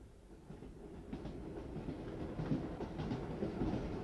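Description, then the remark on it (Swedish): A northbound night train between Malmö and Stockholm, leaving Alvesta station in the evening, rumbles steadily along the rails, a low, continuous roar with faint clattering from the wheels over the track joints, growing slightly louder toward the end. “Denna händelse har till följd att det norrgående nattåget startar 3 minuter och 28 sekunder försenat från Alvesta station denna kväll, den 27 juni.”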